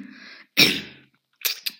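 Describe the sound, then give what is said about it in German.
A sharp cough bursts out after a short breathy lead-in, followed by two quicker, lighter coughs or throat-clearing bursts. No speech. “Keine Ahnung, wie man das nennt. Husten. So eine Art Husten.”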